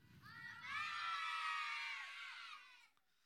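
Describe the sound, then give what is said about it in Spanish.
A group of children shout a greeting together in a loud, sustained unison cry lasting about two seconds, bright and energetic, then trailing off into quiet. “sí grita muy fuerte, amén.”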